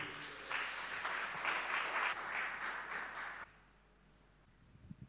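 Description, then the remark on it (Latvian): An audience applauds steadily for about three and a half seconds, a dense wash of clapping welcoming a visiting father and son who are both pastors, then it stops abruptly, leaving quiet room noise with a couple of faint thumps. “Un, un eh, sagaidīsim viņus ar aplausiem un ar pateicību, ka Dievam ir tāda Dieva vīra.”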